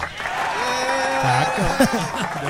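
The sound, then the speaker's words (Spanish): Stadium applause sound effect: a steady, dense wash of crowd clapping that runs the whole time, with voices and a bit of laughter rising over it partway through. “Supongo que debe ser un aplauso de estadio.”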